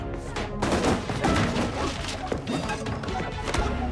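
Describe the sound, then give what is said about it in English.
A flurry of punchy fight sound effects from a movie fight scene, sounding like a fight from The Matrix: rapid whacks, thuds and crashing impacts in quick succession, loud and dense throughout, like a choreographed martial-arts brawl. “or other fights that sound like a fight from The Matrix.”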